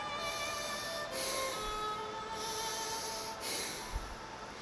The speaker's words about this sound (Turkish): Şimdi nefesi çekiyorum içime burnumdan güçlü bir şekilde ve sümkürür gibi yine burnumdan ittirerek veriyorum.